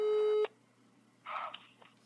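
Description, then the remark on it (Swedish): A telephone ringback tone of an outgoing call to a stranger sounds once as a steady, fairly loud electronic burst, then cuts off, followed after a pause by a brief muffled, quieter sound. “ringer en främling.”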